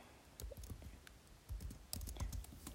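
Quick bursts of typing a web search on a computer keyboard, with clustered key clicks and brief pauses between runs of keystrokes. No voices.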